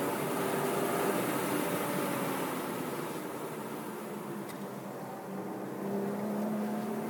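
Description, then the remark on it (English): A sports car's engine roars steadily with a broad rush of road and wind noise as it powers through a corner and up a hill on a race track, its droning pitch dipping and then climbing again near the end as the car accelerates hard. “power through corner five and up the hill one more time. Braking hard at the crest.”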